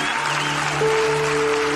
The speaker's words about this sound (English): And I want you, if you're not walking, I want you clapping because there's more re- rejoicing in heaven